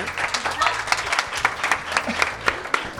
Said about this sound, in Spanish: Un aplauso, un aplauso para Elda Prestigio, por favor, ¿eh?